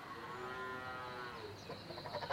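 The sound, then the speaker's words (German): A cow that needs milking moos, one long, low, drawn-out call that slowly sinks in pitch, followed by the rougher start of another moo. No one speaks. “die Kier, die müssen gemolken werden. Du hörst es doch.”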